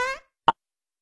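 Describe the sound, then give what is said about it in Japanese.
A single quick fart pops out, short and abrupt, just after a voice trails off, followed by silence, in a Gekidan Chugai Seiyaku radio comedy skit. “おなら出ちゃった。”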